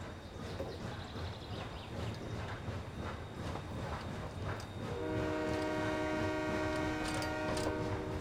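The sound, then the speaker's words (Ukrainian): A train rumbles past with a steady clatter of wheels, then a loud, sustained multi-tone horn blares in over the noise for the last few seconds. No one speaks. “Це була одна з найбагатших німецьких колоній із прибутковою станцією залізниці, через яку проходили потяги між промисловим Харковом та Маріуполем.”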